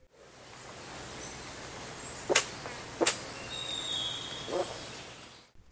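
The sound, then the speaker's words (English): Vultures hiss in short, breathy bursts: two sharp hisses close together, then a softer third one, set against a quiet, faintly noisy outdoor background with no talking. “and hisses, and you usually only hear them do this when they're on the nest site.”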